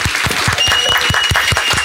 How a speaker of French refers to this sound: Eh ben bravo un Applaudissements du public bravo. bravo